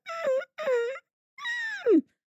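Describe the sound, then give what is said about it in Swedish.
A person imitates the howl of a dog left alone, in three drawn-out vocal bursts, the last one sliding down into a low, strained moan. Fairly loud, with short silences in between. “Och då är det väl så här, och de kan ju börja du vet yla och så här.”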